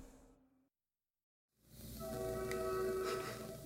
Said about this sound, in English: where occasionally you can hear a train going by in the background